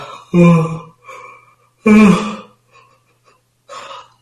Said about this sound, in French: Un bon bailleur en fait bailler, je sais pas combien.